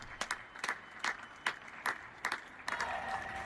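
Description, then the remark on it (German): Scattered applause from a small group on a balcony in Germany one evening in March 2020, at the start of the pandemic, clapping for doctors and nursing staff: sharp claps at an uneven rhythm that thicken into a steadier, denser clapping toward the end, with no voices. “Zu Beginn der Pandemie traf sich halb Deutschland abends auf dem Balkon und klatschte Ärztinnen und Pflegepersonal Beifall für ihre harte Arbeit auf den prall gefüllten Intensivstationen.”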